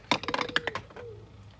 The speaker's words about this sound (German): Nochmal würfeln.